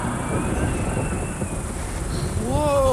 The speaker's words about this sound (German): Hört ihr das? Was ist das? Ja, das ist ein Gewitter.